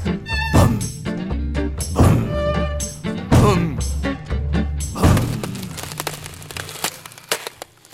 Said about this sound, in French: Mais aujourd'hui, il est très fâché. Il a pris un marteau pour taper, un marteau énorme et lourd, lourd. Et dans le mur, ça fait